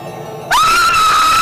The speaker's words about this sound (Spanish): ¿Ay, con un grito? Sí. Bueno, dale. A ver, yo digo un, dos, tres y nos despedimos con ese grito. Uno, 2, dos, tres.